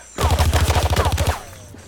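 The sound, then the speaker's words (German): A rapid burst of gunfire, roughly a dozen sharp shots in quick succession over about a second, loud, then cutting off into a quiet low hum. “Die Schüsse trafen, doch ich hatte dazugelernt.”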